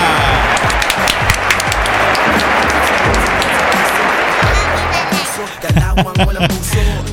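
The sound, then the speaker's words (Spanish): Loud, steady audience applause for a woman, with dense overlapping claps filling the whole stretch, a few scattered voices and cheers mixed in, easing slightly before a final burst of clapping. “¡Aplausos para la señora!”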